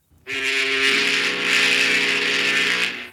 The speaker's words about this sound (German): Ich habe extra einen Schiffsdampfer, also hier so ein Dampferhorn mitgebracht, weil wir sind ja heute hier nicht irgendwo, sondern wir sind, ja ihr lacht, wir sind hier und zwar in der wunderschönen Berliner Rummelsburger Bucht